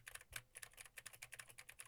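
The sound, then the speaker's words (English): Fast, steady keystrokes on a computer keyboard with Gateron blue switches, WASD keys and spacebar, clicking a dozen or more times in under two seconds; crisp and fairly quiet, with no voices. “And for the gaming folk, now I am typing on the SAD W and the spacebar keys.”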